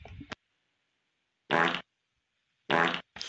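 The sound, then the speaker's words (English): Two loud, buzzy fart bursts of about a third of a second each, separated by silence, with a brief trailing blip at the start and end, recorded by someone holding a phone to their backside and played back. “Somebody had to take their ass, put it to their phone, and then do. And then, like, record that.”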